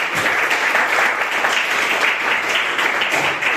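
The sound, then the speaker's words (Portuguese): An audience applauds the Lord Jesus, many hands clapping steadily in a dense, continuous wash of sound that stays fairly loud and even from start to finish, with no voices standing out. “E eu agradeço a oportunidade as palmas que eu ao Senhor Jesus.”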